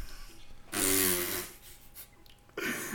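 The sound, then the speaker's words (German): A loud, buzzy fart noise blown with the lips into a microphone, a single raspberry lasting under a second, then fading into quiet breathy noise. “Hast du gerade den Monte gemacht und ins Mikrofon gefurzt? Nein, oder? das war mein Mund.”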